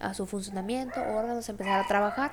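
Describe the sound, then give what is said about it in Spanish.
Dogs bark and yelp, their cries mixing with a person speaking steadily over them. “Y fue como que, ok, perdón por los perros de nuevo.”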